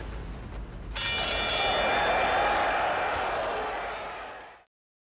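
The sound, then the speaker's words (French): A boxing match bell clangs once, loud, its bright metallic ring sustaining for several seconds over a murmuring crowd before the sound cuts off abruptly. “C'est pas fini tant qu'il n'y a pas eu la cloche.”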